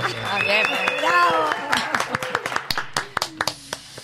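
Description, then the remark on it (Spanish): Voices chatter and laugh briefly, then a handful of people in a radio studio break into scattered applause at the end of the programme, the claps loose and uneven before thinning out toward the end. “Eh, y no un aplauso.”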